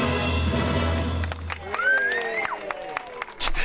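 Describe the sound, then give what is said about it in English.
Scattered, thin applause from a small crowd, a few irregular claps over a low background murmur, with a voice rising and falling partway through. “you heard that enthusiastic applause?”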